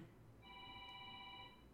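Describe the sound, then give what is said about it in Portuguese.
A telephone rings with a single sustained electronic burst of bright, steady tones lasting about a second, fairly quiet against a low background hum, with no one speaking. “De onde tá vindo esse telefone?”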